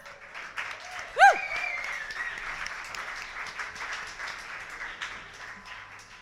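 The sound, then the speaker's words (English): A poetry slam audience applauds steadily for a poet for several seconds, a dense roomful of clapping, with one sharp whistle or whoop rising out of it early on. “Let's keep clapping for the poet. And let's keep that applause going.”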